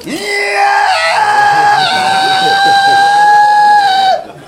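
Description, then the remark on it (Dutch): A voice mimics a feeble Toptool hammer drill with a steady, high-pitched whining drone held for about four seconds after a brief rising start, loud, then cut off abruptly. “Maar met een toptool klopboor, dan doe je...”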